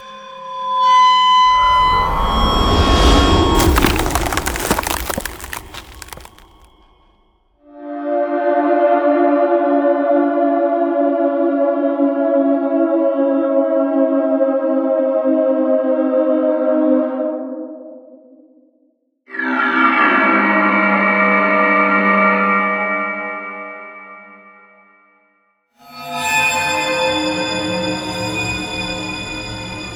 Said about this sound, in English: I really appreciate that this is the kind of thing that's going to be useful for sound designers, trailer composers, and anyone who needs kind of impacts and transitions.